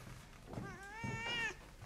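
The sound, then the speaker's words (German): A hidden cat lets out a single drawn-out meow with a wavering, rising-and-falling pitch, clear over a low background hum. “Ich höre was. Alle Vöglein sind schon da. Alle Vöglein. Sei stark. Alle Vöglein, Die Katze ist da.”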